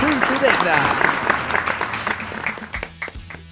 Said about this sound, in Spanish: Un aplauso fuerte